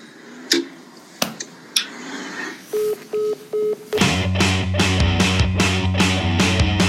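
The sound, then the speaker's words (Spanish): A few sharp clicks, then three short, evenly spaced electronic beeps as the phone line goes dead after Florentino Pérez hangs up on a call from the newspaper El Confidencial, followed by rhythmic music starting up. “Sencillamente a nosotros nos colgó el teléfono.”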